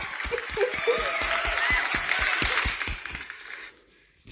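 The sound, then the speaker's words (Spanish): An applause sound effect: a crowd applauds with a dense, steady wash of overlapping claps and a few sharper individual claps standing out. After about three seconds it thins and fades to near silence. “Aplausos.”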